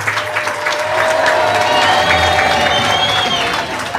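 A large crowd outside a cultural event at the Plaza de San Justo in La Matanza cheers, shouts and claps in greeting, a loud, steady roar for about four seconds, with a few high whistles rising above the din.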